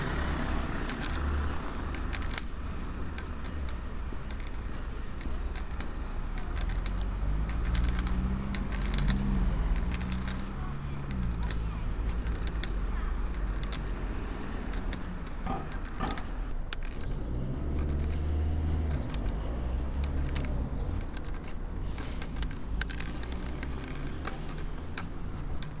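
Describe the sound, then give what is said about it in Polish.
Steady traffic noise from cars passing along a street on the right, a continuous low rumble with engines rising and fading as vehicles go by, plus occasional faint clicks and crackles. “samochody po prawej, e, po lewej”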